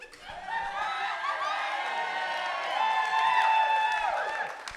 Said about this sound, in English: Did you hear that? That was like 120 people cheering for you. Oh, they're rooting for me.